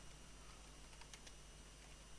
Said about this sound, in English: Are you googling it right now? I am. I can I can hear your keyboard going.